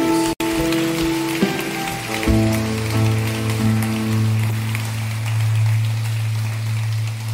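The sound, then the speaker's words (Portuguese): An audience claps steadily for several seconds to glorify the name of Jesus after a prayer, a dense, even wash of applause running over sustained, low keyboard chords that shift partway through; no one speaks. “Então aplaude e glorifique o nome de Jesus.”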